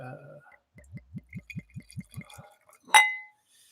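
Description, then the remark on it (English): A run of eight soft, evenly spaced low knocks or pours, then one bright, ringing clink of a glass of single malt scotch that rings out briefly before fading, with no talking over it. “You ready for a sound take on this? Oh yeah. Oh, Ooh. single malt scotch.”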